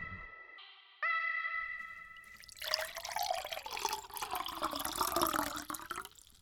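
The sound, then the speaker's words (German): A couple of bright, ringing glassy tones, then a steady gush of tap water pouring into a glass, its hollow pitch shifting as the glass fills. No one speaks. “Ja, heute gibt es zwar keinen Alkohol, aber dafür das gute Leitungswasser.”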